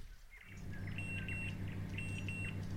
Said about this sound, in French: Ça, c'est le bruit du four. Euh, c'est le bruit de, la sonnerie du four. Euh, bah, quand il a fini de cuire ce qu'il devait cuire, euh, en l'occurrence là c'était euh, une, un gratin.